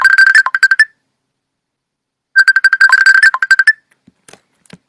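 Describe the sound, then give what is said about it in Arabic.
An incoming call ringtone on a computer plays two bursts of rapid, bright trilling tones separated by a pause of silence, loud, followed by a few faint clicks. “كيصوني في الحاسوب”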